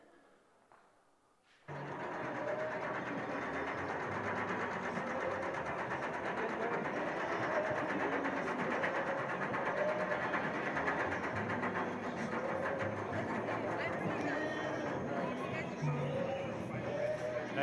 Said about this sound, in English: So we've got a short video clip of this ride. It's only 20 seconds or so, just so you can hear the clicker clacker, clicker clacker.